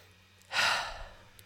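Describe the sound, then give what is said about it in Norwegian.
One slow, deep breath out through the mouth during a slow breathing exercise, an airy exhale that swells quickly and then fades out gradually over about a second, with no talking. “Inn gjennom nesen. To, tre, fire. Og ut gjennom munnen.”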